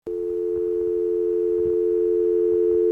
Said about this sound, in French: Alors, petite indication, donc c'est un groupe qui vient de rééditer un de ses albums très connus et euh, dans ce morceau, il y a une euh, sonnerie de téléphone.